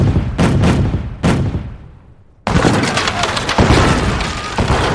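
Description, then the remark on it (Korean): Booming naval cannon blasts fired by the Gyeongsang Right Navy at enemy ships off Jangnimpo, in quick succession, each a sharp loud crack trailing into rumble, followed by a sustained roar of heavy gunfire and crashing debris, intense. “적선을 향해 한포를 발사라.”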